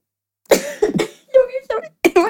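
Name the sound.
coughing fit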